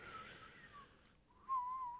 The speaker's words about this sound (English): Do you whistle sucking in or blowing out?